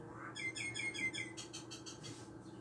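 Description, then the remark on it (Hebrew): A quick, bubbling run of high bird chirps, clear, that rises into a cackling, laugh-like chatter of several rough bursts, as birds burst out laughing, before fading out, with no one speaking. “הנה, שמעתם? הם התפרצו בצחוק גדול.”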